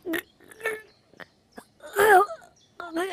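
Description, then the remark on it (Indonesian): A voice imitates a wolf coughing repeatedly after a crane pulled a bone stuck in its throat out with its beak: about six rough, voiced bursts at uneven intervals, the loudest a long strained groan-like cough near the middle, followed by a wheezy final heave. “Sang serigala pun terbatuk-batuk.”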